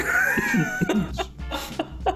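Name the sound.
cough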